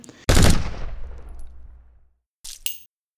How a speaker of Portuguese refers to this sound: Quando ela conseguiu abrir a porta, ouviu o barulho de um tiro muito próximo.